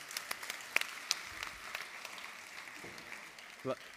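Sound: audience applause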